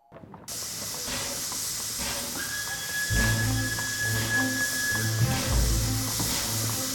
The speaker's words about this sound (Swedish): Tåget från Petrograd har nyss anlänt till Helsingfors. På perrongen väntar hoppfulla människor på att släktingar och vänner ska ta sig ut ur tågvagnarna med kappsäckar, bylten och småbarn i famnen.